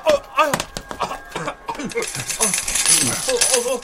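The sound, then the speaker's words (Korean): Coins drop and clatter in a bright metallic jingle that grows into a steady shower of clinks, mixed with people talking over it. “동전 고마워. 자식.”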